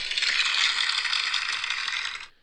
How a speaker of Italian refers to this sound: Questi sono applausi che riserviamo sia alla splendida sigla sia che al nostro tecnico